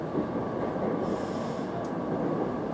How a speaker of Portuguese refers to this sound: e lembro-me de entrar no comboio e aquilo parecer um mundo tipo incrível.